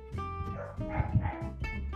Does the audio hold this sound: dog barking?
yes